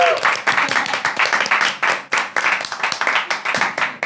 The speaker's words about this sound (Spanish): Yo les quiero contar a los que no nos están viendo en vivo que hoy tenemos público. Por eso se escuchan más aplausos.